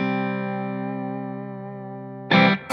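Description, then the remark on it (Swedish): An electric guitar chord played through a reverb effect rings out with a long, smooth reverb tail for over two seconds, then a sudden loud, harsh burst of strummed or crashing sound cuts in near the end. “Eh, men den, eh, det funkar jättebra det där reverbet. Och det, jag tycker att det är typ så 95% av ett bra förstärkarreverb.”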